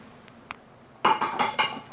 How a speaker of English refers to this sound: Great Scott, the revolver flashed back out of your hand, struck the parapet of the bridge, and then the weight of the stone flipped it over into the water.